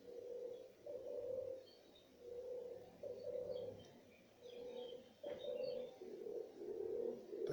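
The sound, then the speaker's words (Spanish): Doves coo steadily in soft, repeated low phrases, one rolling call after another, with faint chirps from other birds in the background and no talking. “mientras escuchamos el canto de las palomas.”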